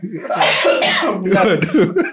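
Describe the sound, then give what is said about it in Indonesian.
A person coughs twice in quick succession, fairly loud, followed by a stretch of throaty, voiced sounds that may be more coughing or talk. “Sampai batuk nih.”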